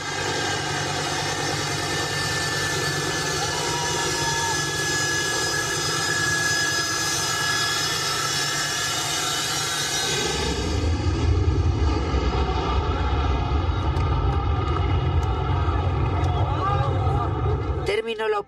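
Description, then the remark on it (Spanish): Airplane engines of evacuation flights from Afghanistan drone loudly and steadily with a high whining tone; about halfway through a deeper rumble swells underneath, as if the engines power up, and muffled voices blend into the noise. “Las imágenes eran dramáticas, todos los vuelos de evacuación estaban completamente llenos, había algunos desesperados tanto que se colgaban de las alas de los aviones.”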